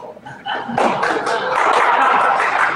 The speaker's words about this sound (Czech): Český šéf zazněl bouřlivý potlesk.